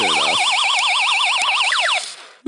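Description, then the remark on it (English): A spinning gadget that props itself up on a suction cup sounds a loud electronic alarm that warbles rapidly up and down like a car alarm, a fast wavering siren tone preceded by a brief bouncing chirp, then it stops abruptly. “It's like a car um, alarm.”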